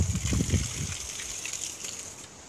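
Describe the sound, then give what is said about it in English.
Water gushes and splashes onto plant pots holding a tomato and potatoes, heavy and churning for the first second, then thinning into a steady, softer hiss of pouring water with no voices; a sunny, hot August day. “So now I'm just gonna, actually, I'm gonna water the tomato, the potato pods, or the two big blue ones.”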